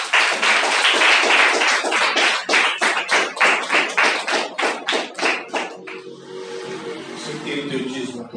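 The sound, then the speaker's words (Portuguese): An audience claps together for the Lord in a steady, quick rhythm for several seconds, the crowd's applause loud and dense, before it dies away into a low sustained hum. “Em nome de Jesus, aplaudo o Senhor.”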